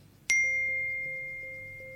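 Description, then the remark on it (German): A single bright electronic chime, a phone message notification, strikes sharply and rings out with a long, slowly fading tone over a faint low background hum. “Ich habe eine Nachricht von Marco erhalten.”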